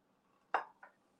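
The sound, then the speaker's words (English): An 8 by 8 casserole dish is lifted with a sharp clunk against a hard surface, followed by a softer second knock, over a faint low background hum with no talking. “I'm going to take my 8 by 8 casserole dish”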